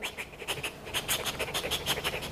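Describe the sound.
A person demonstrates the shallow, quick breathing of a child who freezes in fear: a fast, even run of short airy huffs, about a dozen in two seconds, fairly soft, with no talking.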